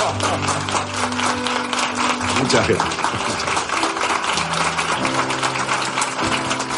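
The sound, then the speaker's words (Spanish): Loud, sustained applause from a large audience after a song performed with a pianist fills the whole stretch, dense and steady, with held musical notes ringing faintly beneath the clapping. “Fuerte, fuerte el aplauso.”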